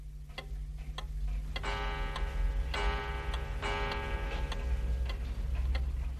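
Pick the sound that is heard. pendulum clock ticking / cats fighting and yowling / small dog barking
pendulum clock ticking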